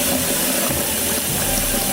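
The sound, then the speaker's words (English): Water runs steadily and loudly for two seconds, a continuous gushing hiss like a tap or hose left on full, a sound effect for water damage in a radio ad for ServPro of Branch and South Calhoun counties, with no voices. “to water damage”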